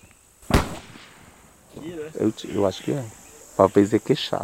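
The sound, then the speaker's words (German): A single sharp gunshot from a hunting rifle cracks out early, loud and abrupt, followed by people talking over a steady high insect drone in the background. “Plötzlich hören wir Schüsse und stellen uns zur Sicherheit nah an ein Haus.”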